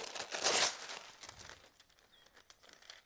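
Crisp crinkling of a sheet of parchment paper being handled and laid over a layer of crushed biscuit about 1 cm thick so it can be pressed down by hand, with a louder rustling burst early on followed by softer, scattered crackles. No voices are heard.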